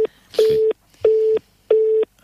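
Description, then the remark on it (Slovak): Telephone keypad dialing beeps: three short, even electronic tones at the same steady mid pitch, evenly spaced with brief pauses between, clear and fairly loud with no talking. “Čo mi tu furt pípaš?”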